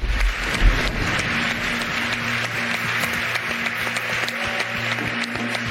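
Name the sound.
stadium crowd applause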